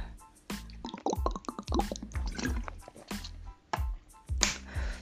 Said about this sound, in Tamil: so two minutes தண்ணி குடிச்சிக்கிறேன்